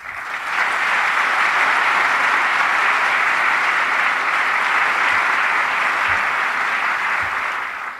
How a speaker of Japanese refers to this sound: ぜひ皆さんと一緒に万来の拍手を安倍総理にお願いを申し上げます。